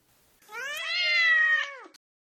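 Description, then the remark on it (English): A single drawn-out cat meow, clear, holding steady for over a second before dropping off at the end, with no other sounds around it; a cat living in a bodega store in New York City. “Most importantly, you should not be surprised to find a cat or a family of cats that reside in the store.”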